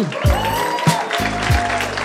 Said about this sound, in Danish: Tusind tak, fordi I havde lyst til at komme og lege med os, så I ikke stod og give en stor hånd til